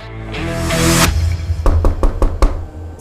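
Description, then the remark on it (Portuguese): A quick series of five firm knocks on a door, evenly spaced, following a brief swell of low tonal sound at the start. “Eles estavam ali nessa batalha quando alguém bate na porta.”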